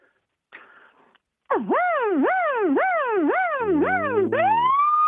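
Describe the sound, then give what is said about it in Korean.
A person imitates a police car siren with their voice, producing a loud wail that sweeps up and down about six times in a steady rhythm before ending on a rising tone. “어, 그 다음에는, 어, 사이렌 성대모사 한번 해볼게요.”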